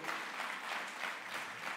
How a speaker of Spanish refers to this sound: Entonces, gloria a Dios. Dele un aplauso al Rey.